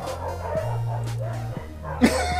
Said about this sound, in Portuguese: Quem soltou os cachorros?